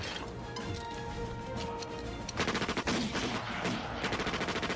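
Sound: gunfire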